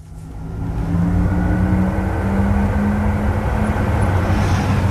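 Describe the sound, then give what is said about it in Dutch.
The Electric Sport Sound of an electric Porsche Taycan Turbo, a synthetic sound that can be switched on or off, swells up within the first second, then holds a loud, steady futuristic hum with sustained tonal layers over low rumble, like a spaceship whir, without any talking. “Dit is de Electric Sport Sound die je uit of aan kan zetten.”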